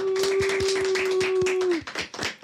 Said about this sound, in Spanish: pero le damos un aplauso.